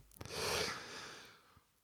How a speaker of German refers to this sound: Ich muss wirklich kurz gähnen